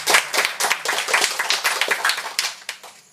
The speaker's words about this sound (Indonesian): Saya mohon tepuk tangan aplaus untuk mereka seratus.